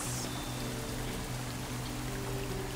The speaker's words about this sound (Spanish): De repente escuchas el sonido de agua. Volteas y ves una cascada azul que cae de entre las rocas.